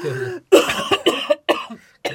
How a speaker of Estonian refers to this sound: stopp, ja nüüd ma köhin.